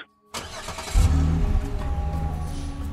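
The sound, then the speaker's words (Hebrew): After a brief silence, the engine of one of three cars waiting near the beach cranks and catches, then revs up into a loud, deep rumble that settles into a steady running growl. “אחרי איזה 50 מטר, כמו שתרגלנו, מורידים את הבגדים מניילון, הופכים להיות אזרחים רגילים על חוף הים, הולכים ל-100, 120 מטר, מגיעים לשלוש מכוניות.”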